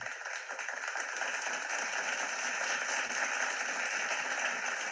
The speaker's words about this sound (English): I like that touch at the end, the applause. Yeah, yeah. Well, you earned it. You earned it.